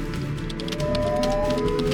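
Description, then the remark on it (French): Rapid, light keyboard clicks patter in a quick irregular stream, sitting over a steady humming backdrop with a faint tonal drone. “Corandine, comme son collègue d'infortune, pianotait avec célérité sur le clavier.”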